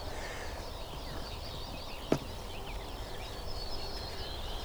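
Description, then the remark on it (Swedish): Ortolan bunting song, thin repeated phrases over steady outdoor ambience, with one sharp click partway through and no one talking. “Jag tycker det låter som det är ortolan överallt nu.”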